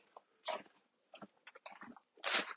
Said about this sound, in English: Small child getting in on the podcast thought it was a dog behind the fence, but it was a small child.